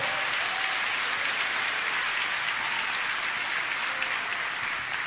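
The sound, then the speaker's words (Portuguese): A crowd claps steadily in sustained applause offered to the Lord, a dense, even wash of many hands that stays loud for the whole stretch without voices standing out. “Pois uma salva de palmas ao Senhor.”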